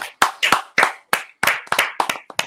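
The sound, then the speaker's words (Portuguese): An audience at a comedy show claps as the evening's comedian is introduced, in a loose, uneven patter of sharp, crisp hand claps, a dozen or so in under three seconds, fairly loud with no voices over it. “Palmas, caralho, hoje, mano.”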